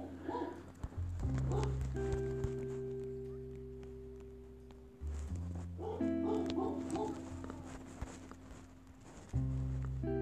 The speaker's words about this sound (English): What is that? Oh, that's just our dog. He's just barking. He barks every single day.